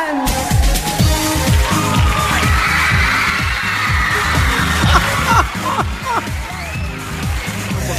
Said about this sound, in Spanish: ¡Ojo! Ojo a los gritos, ojo, eh.